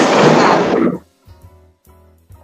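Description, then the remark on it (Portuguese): A loud, sharp crack of thunder from a lightning strike fills the first second, then breaks off into a faint, uneven low rumble that fades in short bursts. “Foi um raio junto com trovão.”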